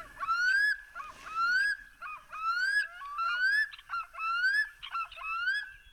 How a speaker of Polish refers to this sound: To też był nur? Wszystko jest nur i jednego tutaj dźwięku brakowało, tego, który całkowicie przypomina wilka, nie?